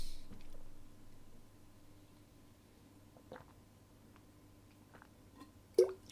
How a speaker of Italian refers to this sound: Mo fatemi bere un po' d'acqua